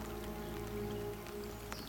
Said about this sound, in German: Der Regen ist ganz warm, Lars.